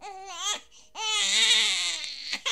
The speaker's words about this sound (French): Les pleurs de bébé.